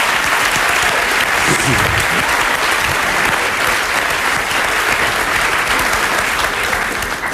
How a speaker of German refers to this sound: Hier ist für Sie der Mann, der unter anderem Kolumnist der Berliner Morgenpost ist. Ihr Applaus für Hajo Schumacher.